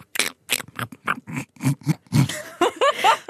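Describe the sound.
A voice imitates wild boar grunting: a quick run of roughly eight short, gruff grunts in steady rhythm, ending in a few higher, squealing snorts.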